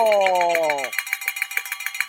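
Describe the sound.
A handbell, the bell of fortune, is rung for a donation, clanging rapidly in a steady, rhythmic ringing for about two seconds. A man's voice briefly speaks over the first moments before the bell continues alone.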